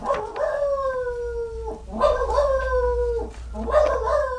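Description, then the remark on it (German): A dog howls in three long, drawn-out, falling wails with a few sharp barks mixed in, loud, with no talking. “Ja, da bellt schon wieder Anest.”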